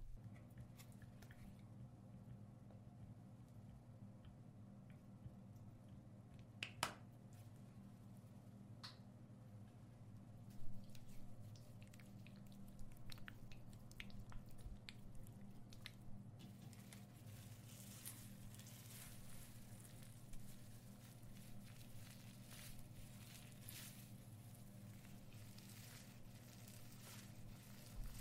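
Quiet wet squishing and faint crackles as a hair treatment is worked through soaked hair, with occasional sharper clicks over a steady low hum and no talking.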